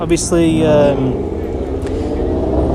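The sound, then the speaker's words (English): A man speaks over a steady, low rumble of road traffic on the Calzada de Tlalpan by the Azteca stadium, engines droning continuously as vehicles fly past along the busy street a few hours after the end of a match. “And sorry about the traffic, but uh, on the uh, Calzada Tlalpan and people come flying past.”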